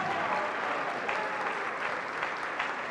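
A crowd applauds steadily, a dense, continuous wash of clapping from many hands that holds at an even level throughout, with no voices standing out.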